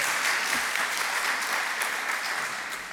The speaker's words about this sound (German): Ähm, könnt ihr mal klatschen? Kriegt ihr das hin? Oh.